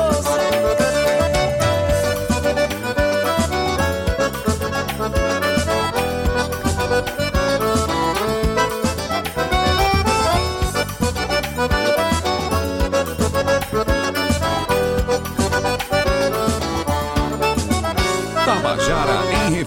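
A song plays loud and continuous, with a male singer carrying the melody over a full, dense instrumental backing that keeps a steady rhythm for the whole stretch, with no talking.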